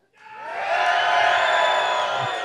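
A large crowd of NFL fans roars and cheers loudly, a dense wall of shouting that swells quickly and holds steady for a couple of seconds, as in a packed stadium.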